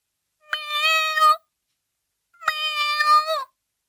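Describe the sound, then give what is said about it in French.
A dwarf kitten in a home meows twice, clear, each call a high, drawn-out mew of about a second with a short pause between them; no voices are heard. “un chaton, un chaton nain dans le logis”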